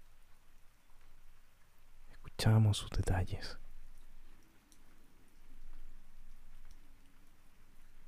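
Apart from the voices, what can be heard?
rain falling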